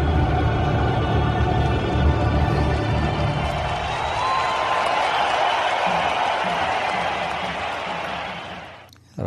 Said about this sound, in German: Auch als dann danach der Applaus kam und man schon das Gefühl hatte, Hamburg hat Lust auf die Champions League und äh, ja, diese Hymne schon was Besonderes ist, oder?